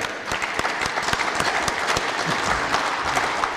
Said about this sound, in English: So, a big round of applause for the Dones because that's what they bring to America.